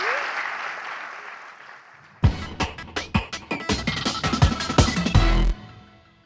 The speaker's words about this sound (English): Uh, guys, if we give another warm round of applause to the Thank you very much for coming.